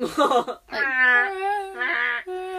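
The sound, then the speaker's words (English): A wet finger rubs a glass rim, drawing out a loud, sustained singing tone that wavers and glides in pitch, starting with a brief scratchy rub before the ringing settles in. “Rim your glass. I don't understand how that's happening. Isn't that beautiful?”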